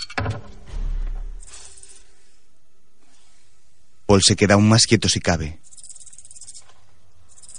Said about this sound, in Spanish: La serpiente deja de silbar y al momento alarga su musculoso cuello preparándose para cualquier ataque.